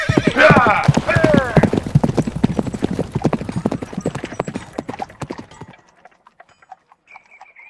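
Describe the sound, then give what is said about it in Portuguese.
A horse whinnies loudly, then its hooves clip-clop in a fast, steady rhythm that fades away, leaving faint ambient sounds behind. “Senhor Huck, pode usar minha montaria.”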